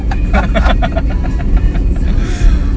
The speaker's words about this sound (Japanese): 大阪ガスさんの緊急車両がね今通り抜けましたけどねお気をつけてご安全にご安全に